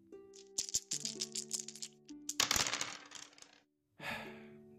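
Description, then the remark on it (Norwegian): Dice rattle and clatter across a hard surface in quick bursts, ending in a louder tumble, then a brief silence and another roll, all over steady electronic tones, in a Radio Revolt jingle choosing which program to hear. “Terningene vil gi deg svaret.”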